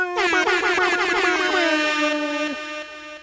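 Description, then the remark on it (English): A loud, brassy air horn sound effect blares, opening with a quick stuttering burst of repeated blasts that merge into one sustained honk, then cuts off abruptly after about two and a half seconds. “i am gonna go back and listen to the mare horns.”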